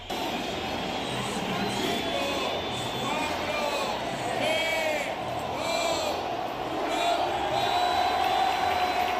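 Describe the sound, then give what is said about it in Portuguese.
A huge crowd at Real Betis's Benito Villamarín stadium in Seville roars and cheers continuously after a halftime countdown as fans throw stuffed toys from the stands onto the pitch during the match against Real Sociedad. A dense wash of voices with scattered shouts and whistles rises above it, staying loud and steady throughout. “Miúdos e graúdos atiraram peluches das bancadas do Benito Villamarim e deram cor ao relevado.”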